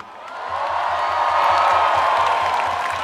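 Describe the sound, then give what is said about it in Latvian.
A large crowd in Riga roars and cheers for the Latvian national hockey team, swelling to a peak midway and holding loud and steady, with a faint low rhythmic thumping underneath the noise. “Ei, uzgavilēsim vēlreiz Latvijas Hokeja izlasē!”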